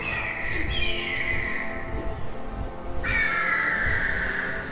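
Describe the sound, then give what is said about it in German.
Two long, shrill eagle cries, each sliding downward in pitch, ring out loudly one after the other over a low, rumbling background. “Ernsthaft? Wieder die Adler? Ja, wieder die Adler.”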